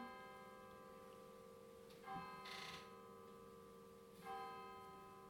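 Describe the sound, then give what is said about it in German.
Church bells ring on a Sunday evening in Münsingen, with sustained, overlapping tones, a few fresh strikes standing out over the ongoing resonant hum; steady, with no talking. “Jetzt läuten die Glocken, Sonntagabend.”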